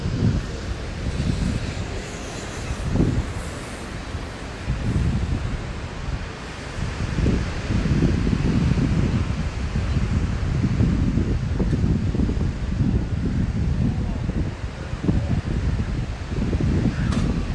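Strong wind buffets the microphone in heavy, continuous gusts in bad weather at Bondi Beach in Sydney, Australia, with the roar of rough ocean waves surging underneath. Loud throughout, with no voices.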